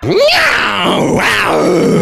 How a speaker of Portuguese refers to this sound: decidimos parar para avaliar a situação, quando de repente, bem atrás da gente, mas sem ser possível de ser visto, um grito muito alto de algum animal com voz rouca.